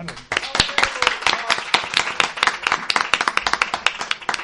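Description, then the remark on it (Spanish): A crowd breaks into steady applause for an audience member called up to the front, many hands clapping in a dense, bright patter that holds at a fairly even loudness throughout, with a few individual claps standing out. “Un aplauso.”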